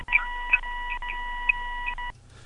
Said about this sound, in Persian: صدای سوت اتاق عمل داره میاد